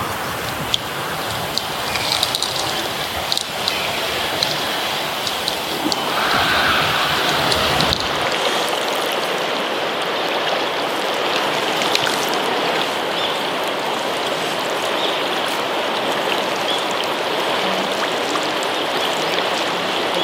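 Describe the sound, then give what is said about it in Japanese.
Steady rush of river water carrying floating ice on its surface in Shiga, Japan, in the morning, with a dense crackling, trickling texture that continues without pause; no voices. “今朝は川の水面に氷が流れる珍しい滋賀のいい音それでは耳を澄ませてお聞きください”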